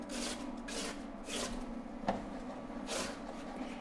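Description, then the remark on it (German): Soft, wet slapping and sliding as potato slices are tipped into a cream mixture in a pan or pot, several rustling bursts with one sharper plop near the middle, without any talking. “Jetzt nimmst du die Kartoffelscheiben und gibst sie in deine Pfanne oder in deinen Topf mhm.”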